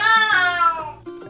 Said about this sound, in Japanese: あの、ちょっと今、いつもな、あの、うちの犬のモノの鳴き声がすると思うんですけど、こちらは、えー、っと、猫ですね。うちの猫、クロちゃんの鳴き声が入ってるかなと思いますけども、ご了承ください。